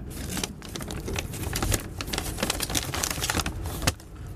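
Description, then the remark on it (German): Crisp paper rustling and crinkling as a paper bag, left like a welcome package on a bed in a two-bed sleeper compartment, is opened and handled, with a steady run of crackles and a few sharper tearing bursts, no voices. “So, was ist denn in der schönen Tüte hier drin, die ich hier auf meinem Bett liegen habe?”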